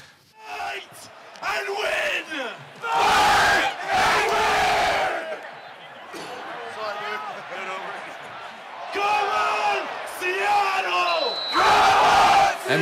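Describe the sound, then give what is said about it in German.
Seattle Sounders football ultras chant in a packed stadium: the capo shouts lines and a big crowd roars back in loud, surging bursts, a rough call-and-response. “Das ist äh, zum Beispiel der Capo von den Seattle Sounders.”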